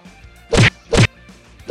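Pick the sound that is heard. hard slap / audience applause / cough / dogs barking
hard slap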